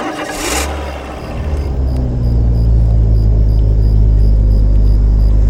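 A car engine turns over and revs up, its low rumble building steadily into a loud, sustained drone as the car turns onto a shortcut road through a dense forest in Himachal Pradesh at night, with no talking.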